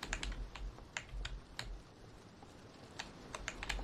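Rapid, forceful keyboard typing with sharp clacking keystrokes in irregular bursts, a brief lull in the middle, then another flurry of hard key presses over a low background rumble.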